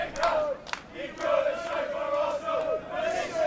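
A large crowd of away football fans chants in unison as they come in through the Stamford Gate before kickoff, a sustained sung melody rising and falling with steady rhythm, echoing, with a brief shout near the start.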